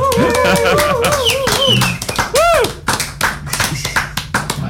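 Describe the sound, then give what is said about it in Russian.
A crowd of people clapping their hands in a steady, loud patter of overlapping claps, with rising and falling whistle-like tones sweeping above the applause. “Либо глупин дают, либо хлопать заставляют, да.”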